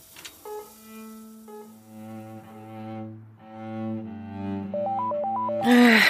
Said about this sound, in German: Nicht zu fassen. Kaum sitze ich am Cello, klingelt das Telefon. Jedes Mal das Gleiche.